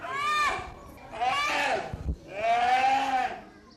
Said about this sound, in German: war ja noch ein junger Eisbär